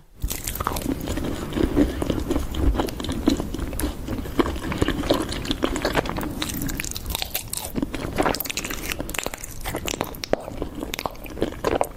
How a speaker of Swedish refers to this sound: Och då är det den nya trenden att man tuggar på så här bivax.